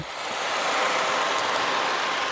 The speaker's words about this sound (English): This is a recording from a hydrophone that was suctioned onto a wild killer whale in the San Juan Islands near a passing vessel. Loud boat noise like this forces endangered killer whales to raise the volume of their calls.